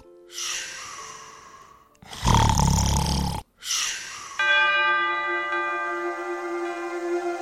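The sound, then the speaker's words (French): A breathy inhale leads into one loud, rumbling snore, followed by another soft breath, as Gargantua falls asleep while Brother Jean recites the psalms; then a sustained, ringing chime-like tone takes over and lingers to the end. “Alors, le frère Jean vient à son secours en lui récitant les psaumes et l'effet soporifique est immédiat.”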